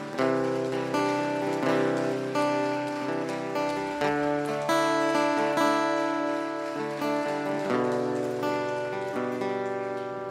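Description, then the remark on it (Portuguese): An audience claps steadily throughout, applauding the Lord, the dense crackle of applause running beneath loud, sustained organ-like music chords that fill the whole stretch. “Se você quiser aplaudir ao Senhor, pode aplaudir.”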